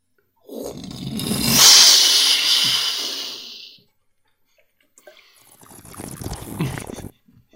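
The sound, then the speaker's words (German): A voice imitates a water ride splashing down: a long, loud hissing whoosh that rises and fades, then after a short pause a second, rougher and quieter gushing burst. “Wie eine Wasserbahn macht.”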